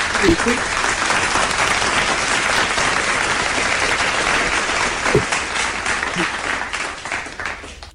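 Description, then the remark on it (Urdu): Sustained applause from a crowd for a song performance, a dense steady patter of many hands clapping that holds for several seconds before thinning slightly at the end, with brief voices underneath. “بہت ہی خوبصورتی سے آپ نے اس یہ گیت کو پیش کیا آپ کے لیے تالیاں”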